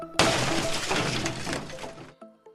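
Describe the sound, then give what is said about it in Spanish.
A loud burst of glass shattering, sharp and bright, with fragments tinkling and scattering for about two seconds before cutting off abruptly; a sound effect introducing the radio segment El Cristalazo by Rafael Cardona. “Prepárate para escuchar El Cristalazo por Rafael Cardona.”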